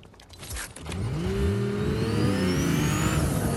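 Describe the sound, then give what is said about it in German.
A video game car engine revs up, its pitch climbing in rising harmonic sweeps and then holding at a steady, loud drone, unbroken with no talking. “Warte, ich gönn mir da vorne mein eigenes Auto.”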